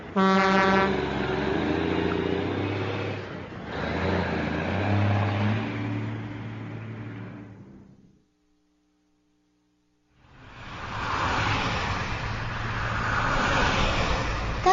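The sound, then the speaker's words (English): Busy city street traffic roars, with a car horn blaring at the start, then a brief near-silent gap with a low hum before the traffic rush returns loudly. “The streets.”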